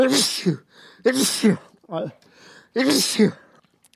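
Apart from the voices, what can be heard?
sneezing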